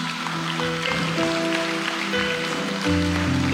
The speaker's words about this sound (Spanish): Vamos, dale un aplauso a Jesucristo.